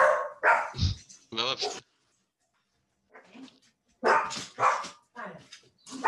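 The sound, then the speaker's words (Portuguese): Dogs bark loudly in quick bursts of several sharp barks, fall silent for a moment, then break into another rapid volley of barking. “E os cães pensam, ei caralho, piso E começam a ladrar bem.”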